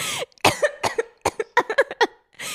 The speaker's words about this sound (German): jetzt huste dich aus. Boah, bist du nervig.